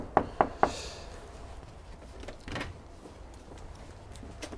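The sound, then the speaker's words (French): Three quick, sharp knocks on the wooden door of the Castel de Daval in Sierre in an even rhythm, fairly loud, followed by faint rustling and soft shuffling in an otherwise quiet space. “Alors on arrive devant le Castel de Daval et je vais frapper à la porte.”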